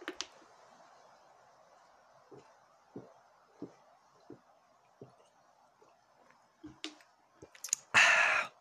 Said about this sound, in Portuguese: Deixa eu tomar mais um golinho d'água, perdão, peraí.